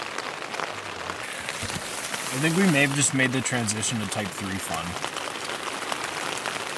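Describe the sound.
Steady rain patters on a surface throughout, a dense hiss of drops that continues while a man speaks briefly over it in the middle.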